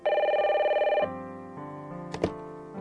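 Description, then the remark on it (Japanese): A telephone rings with a loud, warbling trill for about a second, then gives way to lower sustained tones and a short sharp click near the end. No one speaks. “懐かしい人から電話があった”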